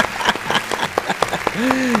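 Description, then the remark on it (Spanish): Several sharp, evenly spaced handclaps, about six in quick succession, applauding a producer, before a voice comes in over the last moments. “Y pues bueno, un aplauso para usted también,”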